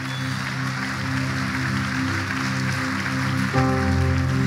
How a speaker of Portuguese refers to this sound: Você pode aplaudir bem forte a Ele? Pode?